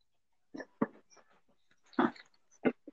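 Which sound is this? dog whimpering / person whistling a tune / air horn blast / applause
dog whimpering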